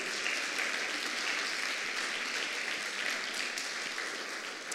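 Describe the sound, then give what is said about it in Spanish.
A crowd claps steadily and continuously, a dense wash of many hands applauding for Jesus at an even loudness for several seconds with no one speaking over it. “Den un aplauso a Jesús.”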